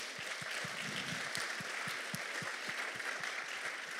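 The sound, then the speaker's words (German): A church audience applauds steadily for its praise, worship and leadership teams, dense clapping filling the whole stretch at an even level, with faint low thumps recurring in a regular beat underneath. “You please put your hands together bitte for all klatschen für sie?”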